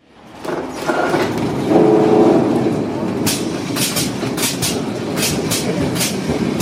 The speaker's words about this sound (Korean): 포르투갈 리스본에 도착했습니다 리스본의 감성을 느낄 수 있는 노란 버스 이게 트램입니다.